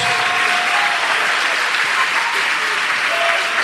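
An audience applauds the Lord Jesus steadily, a dense wash of many hands clapping, sustained and loud without pause throughout.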